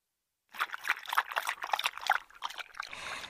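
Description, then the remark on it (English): A deer drinks from a pond: wet lapping and splashing in quick irregular gulps, followed by a softer trickle, with no voices. “The deer goes to the pond for a drink.”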